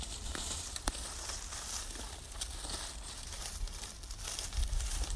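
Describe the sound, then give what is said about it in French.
Dry leaves crackle and crinkle as they are pulled away and crushed, a continuous rustling with sharp little snaps scattered throughout, no voices. “Tu fais quoi J'enlève un petit peu. Et ces feuilles-là, là ça, pourrit pas.”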